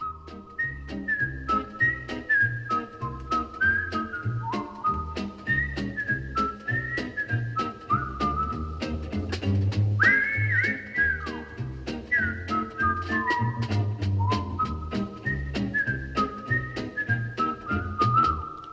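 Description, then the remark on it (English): A bright whistled melody carries a catchy theme tune over a bouncy band backing with steady bass and drums, loud and continuous from start to finish. “I hope you were whistling along with that theme song.”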